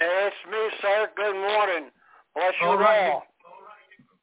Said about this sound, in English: Yes, yeah, you've got a little echo in the background. If you could turn the sound down, you've got two men of God here with you on the line, three, including me.